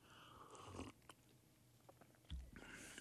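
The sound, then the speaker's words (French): Crunching and chewing of a handful of dry, brittle insect larvae, with bursts of crisp bites at the start and again near the end, no talking. “déguste des larves pour contribuer à l'autonomie alimentaire du QC”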